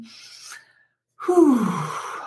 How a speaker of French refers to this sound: Et si tu prenais le temps de bien respirer avant de lire mes questions? ici, ce serait avant d'entendre mes questions. Alors, on inspire ensemble.